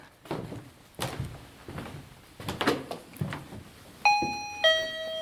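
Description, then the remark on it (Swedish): A two-tone electronic chime from a battery-powered motion sensor, set off by a foot placed in front of it, rings out near the end, a bright ding followed by a lower dong, after several seconds of footsteps and shuffling on creaky boards. “Jag ska ta mig till rörelsesensorerna som jag har placerade. Ska se om det är batteri kvar dem. Sätter jag foten framför en. Jajamän. Den är igång.”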